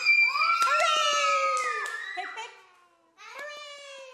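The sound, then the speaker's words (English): A group of children's voices shouts a long, loud cheer together as three cheers are given for children who are leaving, then after a brief pause a second, shorter, bright cheer rises up. “Now, listen, guys, before we go, I want three big cheers for our children who are leaving.”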